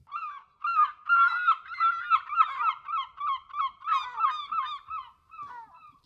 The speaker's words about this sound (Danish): Det er jo dine gamle venner fra Liverpool, Clark. Ja. De er satans mover. Kæmpe mågerne.